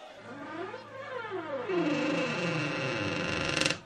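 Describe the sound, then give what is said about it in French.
A small wooden door by a quiet alley creaks slowly open, its hinges groaning in long, wavering rising and falling tones for several seconds, fairly loud, ending with a brief rattle. “Sur le côté droit, il y avait une ruelle tranquille et une petite porte en bois.”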